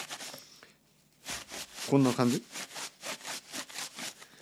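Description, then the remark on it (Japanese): Paper tissue rubbed hard and fast, imitating the sound of someone wiping their bottom in a toilet, a steady run of about a dozen scratchy, rhythmic strokes, with a brief spoken phrase partway through. “はい、あのこれ今トイレットペーパーじゃないけどこの紙のティッシュを持ってきましたね。で彼がねそのお尻を拭く音がね こんな音なんかこんな音が聞こえたんですよ”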